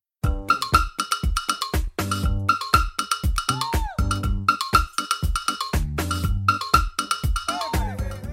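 A bright cowbell taps out a steady, syncopated percussion groove, ringing loud and close over a bouncing bassline and drums, with no voices.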